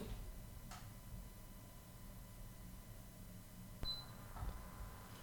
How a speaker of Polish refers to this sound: Było słychać piknięcie, teraz trochę więcej hałasu, bowiem ten komputer jest nieco starszy i ma nieco gorszą kartę dźwiękową.